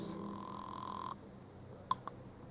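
A steady telephone dial tone hums for about a second, then cuts off, followed by two short, sharp dialing blips as a call is placed to a home office. No one speaks.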